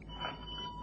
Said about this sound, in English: Ah, that, uh, that is the doorbell. It must be my visitor, Professor Waldhausen.